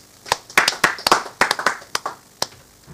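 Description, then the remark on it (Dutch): Applause after a short poem is recited, made of sharp, separate hand claps, about a dozen in an uneven rhythm, fairly loud and crisp, with no voices over them. “Zo, dat is een heel groot applaus.”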